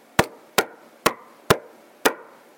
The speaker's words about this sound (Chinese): 一阵敲门声响起。王太太心想：太奇怪了，这个时候谁会来找我啊？